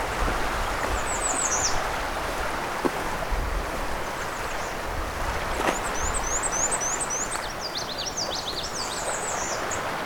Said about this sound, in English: That's a nice clear black and white warbler.